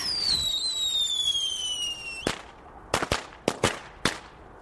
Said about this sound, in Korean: 불꽃이 지푸른 어둠 속에서 요란한 소리를 내며 닿고 땅에 떨어지자 순식간에 사그라졌다.